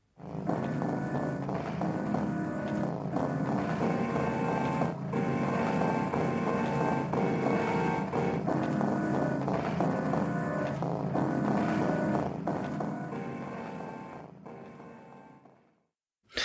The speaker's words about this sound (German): Ich würde da selten von Musik reden, sondern eben von diesen ja, Soundkulissen und wenn es was Musikartiges ist, dann häufig eher so industriell, stampfend, verzerrt. Sowas wie das hier zum Beispiel.